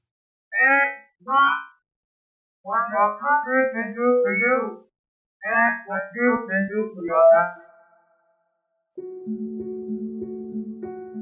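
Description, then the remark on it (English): Digital whistle tones trace the rhythm of a recorded speech clip, warbling and gliding in syllable-like bursts across several phrases with no real voice, since the original speech is not played along, then give way to a steady, low two-note hum. “And here's that same clip played through a digital whistle and to be clear, the original speech file is not playing along with this.”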